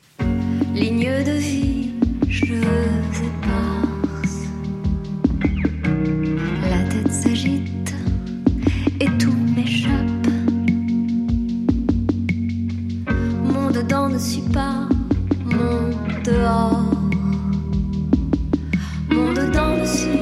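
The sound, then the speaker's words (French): A song from a seventh album plays steadily for the whole stretch, with a deep sustained bass, layered melodic tones and regular percussive hits, held at an even, full volume with no talking over it. “un extrait du septième album pour vous”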